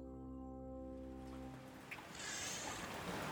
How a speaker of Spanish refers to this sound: y tomaba de la mesa de centro la concha para llevársela a la oreja y escuchar aquel mar que juntos habían robado en Angelmont.